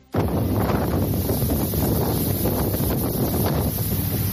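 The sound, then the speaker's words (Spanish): Strong, steady wind roars across the open water of the Indian Ocean, buffeting the microphone with a constant low rumble and hiss for several seconds, with no voices present. “Te voy a llevar hasta el Océano Índico, hacia un lugar que suena de esta manera.”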